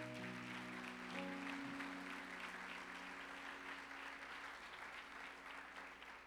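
Sustained applause from a crowd applauding the Lord in praise, a dense steady patter of many hands clapping at an even loudness, with low sustained musical tones underneath at the start.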